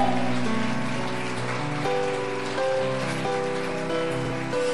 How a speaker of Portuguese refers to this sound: Você pode aplaudir esse assim, Senhor.